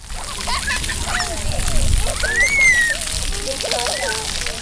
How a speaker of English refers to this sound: That's the sound of kids playing in a splash park in West Roxbury yesterday as temperatures reached into the 90s.